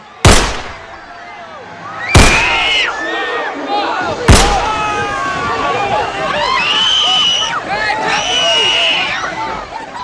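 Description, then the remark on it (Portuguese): Three sharp, loud gunshots fired point-blank at Malala on a stopped school bus in October 2012 ring out about two seconds apart, with agitated crowd voices and shouting rising and continuing around and after them. “Quando ela acenou, recebeu o disparo a queima-roupa de três tiros.”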